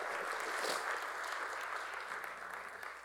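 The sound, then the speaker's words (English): A church audience gives the Lord a hand clap during a morning service, a dense wash of many hands applauding together for a few seconds, fairly loud and sustained before easing slightly toward the end. “And the church says, can you give the Lord a hand clap this morning?”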